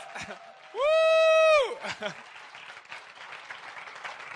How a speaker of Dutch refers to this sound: kunnen veel beter klappen dan dat.